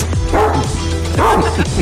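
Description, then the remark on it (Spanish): A dog barks twice in quick succession, loud, each bark a sharp burst with a brief whiny tail, over a steady low hum. “Ahora sí, ahora sí, aviéntale al perro para que se vaya ya, no me importa que me trague el perro.”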